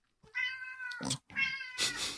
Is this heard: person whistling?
no